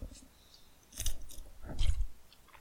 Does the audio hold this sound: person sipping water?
yes